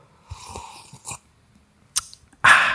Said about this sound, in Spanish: Pero en fin, ah, por cierto, voy a dar un traguito de café dramático